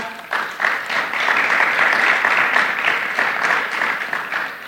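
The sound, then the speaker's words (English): A church audience breaks into sustained applause to welcome new members, a dense, steady wash of many hands clapping at once, holding at a fairly loud level for several seconds with no voices standing out. “So please welcome them officially with a round of applause.”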